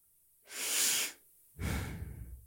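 Two audible breaths demonstrating ordinary breathing: a hissy inhale followed by a longer, softer exhale, with no talking in between.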